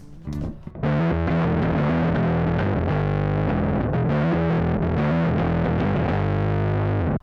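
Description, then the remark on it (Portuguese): An electric bass played through a distortion pedal gives a loud, gritty riff of sustained low notes with a buzzing, saturated tone, starting after a brief hit and continuing steadily without any voices. “Entre os mais usados estão overdrive, distorção e fuzz.”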